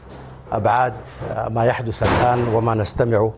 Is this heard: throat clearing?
no